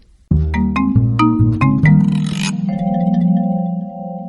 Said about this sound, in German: Nun waren alle Tiere hellwach und schrien vor Angst. Was für ein Krach, was für eine Aufregung. Am lautesten trompeteten die Elefanten mit ihren Rüsseln. Man konnte sie bis zur Osterweli-Straße in der Mitte der Stadt hören.